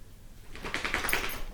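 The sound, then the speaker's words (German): A dog makes a short run of scratchy, whiny noises lasting about a second, moderately loud, with no one talking. “das war mein Hund”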